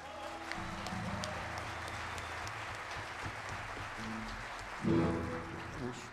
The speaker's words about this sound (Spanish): Gracias para ustedes. Un aplauso.